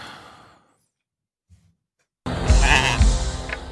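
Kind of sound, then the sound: animal, sheep bleating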